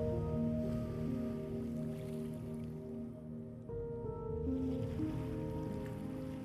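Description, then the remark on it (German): Soft, steady wash of ocean surf rolling onto a shore, blended with a sustained ambient musical drone; quiet and continuous, with no voices. “Jetzt, wo die erste Welle deine Füße umspült, spürst du ein Gefühl von Freiheit.”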